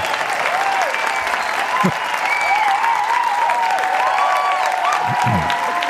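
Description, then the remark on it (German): A dense burst of crowd applause, played in as a sound effect, fills the whole stretch at a steady, loud level, with scattered whoops and cheers rising above the clapping. “Ich möchte an dieser Stelle nochmal den Applaus einspielen.”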